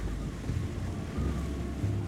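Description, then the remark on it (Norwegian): A boat travels south along the coast across the sea, a steady low rumble mixed with rushing water and wind noise, continuous and fairly loud throughout, with no voices. “Og så for de sørover med båt langs kysten.”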